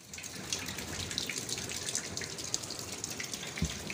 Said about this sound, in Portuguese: Não menos importante, o edifício vê-se a pingar, como podemos testemunhar em alguns vídeos.